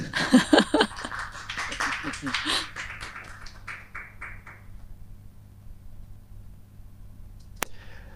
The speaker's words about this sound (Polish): I tu jest miejsce na oklaski, choćby wirtualne.